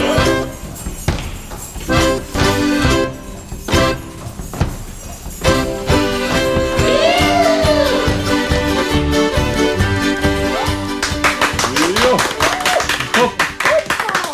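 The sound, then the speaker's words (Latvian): Audience applause breaks out near the end, a dense patter of many hands clapping that follows and overlaps the close of a sung musical performance. “Paldies par aplausiem!”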